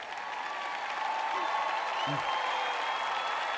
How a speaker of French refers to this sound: Vous n'applaudissez pas très fort.